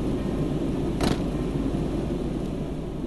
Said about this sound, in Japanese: まず出迎えてくれたのはエアコンの音ブオーンとうなっているここ10年フィルターを掃除していない匂いがした凍えるくらい室内が冷えていたのでエアコンを止めると静寂とともに暑さがやってくる